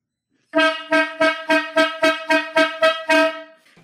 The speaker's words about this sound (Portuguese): Corneta aleatória valendo.